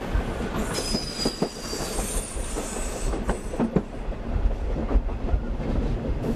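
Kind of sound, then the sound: vehicle, passenger train running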